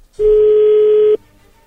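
A loud, steady telephone dial tone as a phone call is being dialed holds one low, unwavering pitch for about a second, then cuts off abruptly, leaving faint background noise and no talking.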